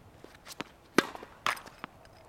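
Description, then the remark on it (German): Tennis on an indoor court at Grand Central Terminal: a handful of sharp ball strikes, the loudest two close together, with softer pops and bounces in between against a quiet background. “Denn der Grand Central Terminal verfügt seit den 1960er Jahren über Tennisplätze.”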